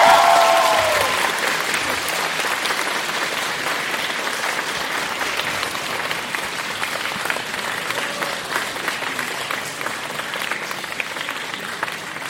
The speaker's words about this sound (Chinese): 也将掌声送给反方香港城市大学。